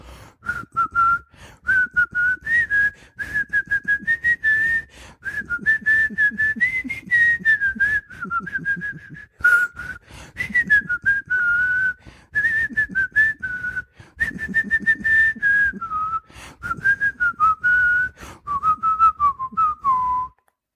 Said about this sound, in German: ich pfeif dir jedes Mal eine Melodie von einem berühmten Punkrock-Song und du musst den erraten